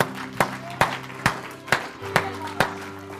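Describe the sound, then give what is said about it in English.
An audience at a church service claps in steady unison in praise of God, six sharp, evenly spaced claps over a sustained musical drone, with a faint murmur of voices underneath and no clear shouting. “Give him a hand clap and a shout today.”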